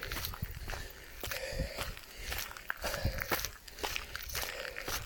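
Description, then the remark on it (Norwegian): A person's own shoes crunching on a gravel path outdoors in nature on a quiet, clear, starry night, with a stream audible: a steady series of gritty, scraping steps at an uneven walking pace, fairly loud over a soft continuous background hiss, with no talking. “Jeg hører en bekk, og jeg hører mine egne sko.”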